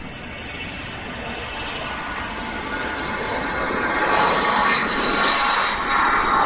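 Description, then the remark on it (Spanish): A steady, enveloping roar of airplane engines in flight, continuous and fairly loud, with a thin high whine riding on top and a slight swell toward the end; no voices. “Oye, pues que le coge esto al gustillo esto de los aviones.”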